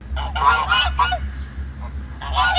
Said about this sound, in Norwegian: With these geese honking and waddling about, you'd think this is a park, but it's not. It's a prison in southern Brazil. For det som har skjedd, er at et fengsel i eh, Brasil har bytta ut vakthundene sine med vaktgåser.